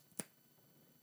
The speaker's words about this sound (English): Three snaps